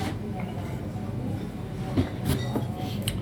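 A train rolls along the rails with a steady low rumble, punctuated by a few sharper clacks and metallic bursts as the cars pass over joints, continuous throughout.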